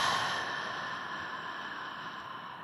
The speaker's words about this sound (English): So, breathing in and a long, slow exhale. Breathing in and a long, slow exhale.